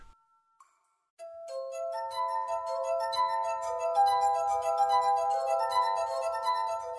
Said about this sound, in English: It's sometimes called the glass harp, an array of wine glasses that you play by rubbing your finger on the rim. What you might not know is that the instrument was invented by an Irishman, Richard Pockrich, from County Monaghan, in 1742